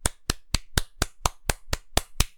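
A single person claps about ten times at a steady, even pace, each clap a sharp, crisp slap of similar loudness, with no talking, applauding two baseball pitchers for their performance in a game.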